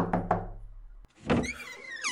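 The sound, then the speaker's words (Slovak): Two quick, solid knocks by a man on the wooden door of his nephew's house, fairly loud. After a short pause, a scraping sound with a faint high creak follows, like the door being opened. “Mnoho ráz prešiel popred dvere, lebo sa nevedel osmeliť a zaklopať. Napokon odhodlane vykročil a zabúchal.”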